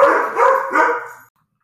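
A dog barks three times in quick succession, loud, the barks running together before cutting off into silence.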